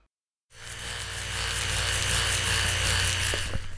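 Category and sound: household object, electric toothbrush buzzing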